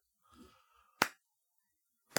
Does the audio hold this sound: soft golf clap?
yes